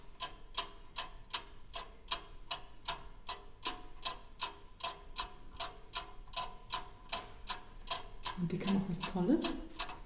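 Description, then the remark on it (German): Steady, rapid ticking of an antique lion-head clock, named for the lion's head adorning its front, crisp evenly spaced clicks for the whole stretch, with a brief murmur of a voice underneath near the end. “Noch schneller als die Prager astronomische Uhr läuft die Löwenuhr, die ihren Namen von einem Löwenkopf hat, der sie an der Stirn schmückt und der beim Stundenläuten sein Maul öffnet.”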